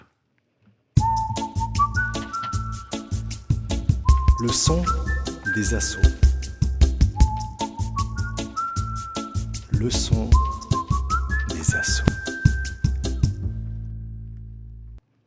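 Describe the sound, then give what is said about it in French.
A short radio jingle of a band with a bright whistled melody stepping up in repeated phrases over a steady rhythmic backing, with a voice briefly speaking over the music near the end. “Je vous propose de passer à cette partie après, évidemment, avoir écouté le jingle des ….”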